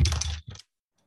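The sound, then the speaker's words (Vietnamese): A pen clatters onto a hard surface, a sharp rattling impact followed by a brief bounce, then silence. “anh anh bị rớt cây bút anh ghi màu khác nhé”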